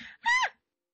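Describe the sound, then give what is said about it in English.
A person imitates an owl call: a breathy lead-in, then one short, loud, shrill screech that bends downward and cuts off, followed by silence. “Apologize for my owl noise.”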